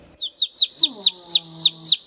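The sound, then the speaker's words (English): A baby chick cheeps eight times in a steady rhythm, each peep a short, high-pitched, slightly falling note, with a faint low tone humming underneath partway through. “听这个声音和小鸟叫是不是很像？tweet tweet tweet。”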